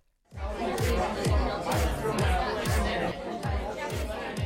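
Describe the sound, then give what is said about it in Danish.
Dense crowd chatter fills a loud nightclub, with a steady thumping bass beat pulsing underneath the overlapping voices throughout. “Er det en, øh, en, en lyd, du savner? Jeg kan se, du allerede danser, Anna.”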